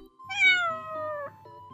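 A single drawn-out cat meow, clear and fairly loud, its pitch sliding gently downward for about a second before a softer, brief trailing note, over a low steady background rumble.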